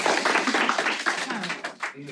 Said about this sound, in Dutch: Nou, nog een keer heel hard applaus.